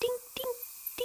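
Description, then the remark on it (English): A voice imitates a microbat's echolocation call with three short, evenly spaced, high ringing syllables, spoken fairly quietly with brief pauses between them. “Can you make the secret sound of a microbat?”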